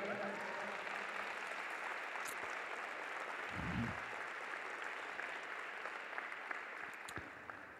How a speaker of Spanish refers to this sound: Aleluya, dale un fuerte aplauso al Rey.